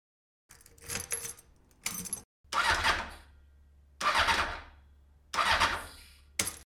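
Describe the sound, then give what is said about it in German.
A short jingle for the show Schrauberzeit built from sound effects: a few bursts of jangling keys, then an engine cranks to life, settles into a low idle and roars through three loud revs. “Hier kommt der Jingle, es geht los.”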